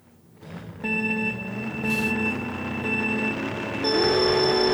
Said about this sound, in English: Timer.